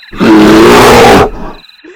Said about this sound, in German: Ist da ein Bär? Guck aus dem Zelt raus. Guck aus dem Zelt. Scheiße, da ist ein Bär.